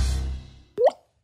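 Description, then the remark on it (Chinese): A single water drop, presented as the sound of a falling tear in an anti-drug advertisement, lands with a clear, resonant plop, its pitch sliding upward, after a fading low rumble; then silence. “这是落泪的声音。”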